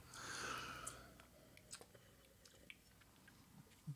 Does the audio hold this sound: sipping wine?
yes